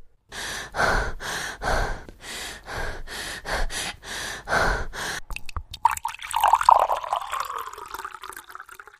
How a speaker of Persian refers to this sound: خیلی به سختی نفس میکشم آروم باش آروم باش عزیزم